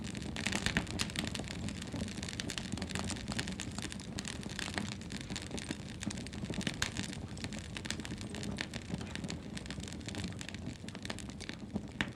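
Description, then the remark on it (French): A fire crackles steadily with dense, irregular pops and snaps over a soft roar, continuous throughout, with no voices. “C'est leur force à toutes qui brûle au fond de nous. Je vous laisse l'écouter crépiter un instant.”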